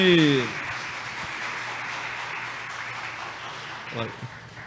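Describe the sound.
A crowd claps hands in a steady, dense wash of applause that holds at an even level for several seconds, with a brief voice at the start and another near the end.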